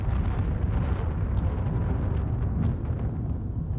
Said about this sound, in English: So the sound that you would expect not to hear in this kind of environment is thunder, which is uh, an organic sound from the surface of the earth. Uh, yet there are two places in the film that I used um, thunder. One of them is here in the prison.